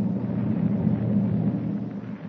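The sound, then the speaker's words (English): A steady, continuous low rumble of a ship's engine, heard in a forward hold three decks below, drones without a break, deep and heavy, at an even loudness with no voices. “Meanwhile, in the darkness of a forward hold, three decks below, a hushed voice rises above the sound of the ship's engine.”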